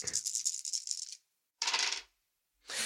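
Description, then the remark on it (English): Two green dice clatter across a hard table in a rapid rattling burst, then more bright tumbling clicks follow in separate bursts with brief silences between, no voices over them. “with my two dice, two green yeah, dice.”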